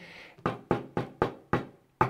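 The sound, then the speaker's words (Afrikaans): Six firm knocks on a door, each a sharp thud with a brief ring. The first five come in a steady rhythm, then a short pause before the final knock, with no talking. “en ek klop en ek wil inkom.”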